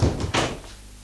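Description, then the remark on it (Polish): A door swings shut with a short low thud, followed by a brief scraping rattle of the latch, moderately loud, then quiet room tone; recorded without the Dolby noise reduction system. “Może zamknę i otworzę, otworzę drzwi. Zamknę drzwi.”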